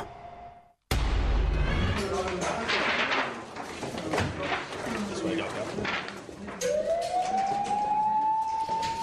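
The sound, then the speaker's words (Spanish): A steady electronic beep gives way to a busy hospital soundscape of murmuring voices and clatter, then an ambulance siren rises in pitch and holds loud over the bustle. “Bueno, estamos escuchando sonidos de hospitales porque eh, les voy a contar nuestra historia sonora de hoy.”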